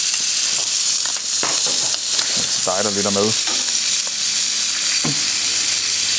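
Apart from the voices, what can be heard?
bacon sizzling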